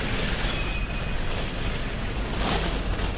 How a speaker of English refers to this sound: quite a big trolley sound. Oh wow, this guy's trying to push this trolley up these two steps. He's crossed the road. Oh, well done. It's quite tricky.